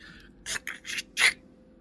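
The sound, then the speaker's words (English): A mechanism inside a desk clicks and grinds in four quick, uneven bursts, the last one loudest, as all the drawers lurch forward a bit and loosen, with no one speaking over it. “a mechanism makes a noise from inside the desk”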